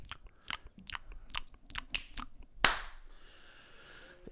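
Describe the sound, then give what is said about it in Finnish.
ASMR-style wet mouth clicks and smacks in an irregular series, followed by a sharper crunchy snap that trails off into a soft hiss, with no talking. “Ja sitten niitä maiskutteluääniä kaikkea.”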